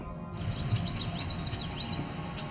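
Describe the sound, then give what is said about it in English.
A cedar waxwing's thin, very high-pitched whine on the Otter Lake Trail, a faint sustained tone emerging at the end after a quick burst of bright, chirpy song notes from a yellow warbler. “That's the cedar waxwing, and if you didn't hear it, here it is again.”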